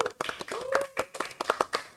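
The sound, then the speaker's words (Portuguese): A burst of applause greeting a guest as they are introduced: many quick, overlapping hand claps in an uneven patter, fairly loud and sustained for the whole moment, with a faint voice tone mixed in. “salva de palmas da astronauta”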